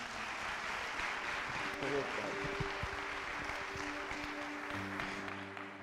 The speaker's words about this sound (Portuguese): Vamos recebê-lo com a forte salva de palmas.